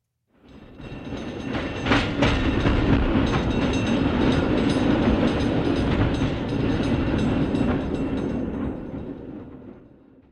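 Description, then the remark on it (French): A tram rolls along its rails, a steady loud rumble with metallic clatter and squeal that swells in quickly and holds for several seconds before easing off at the end. “Et toi, es-tu pour ou contre un tramway à Québec?”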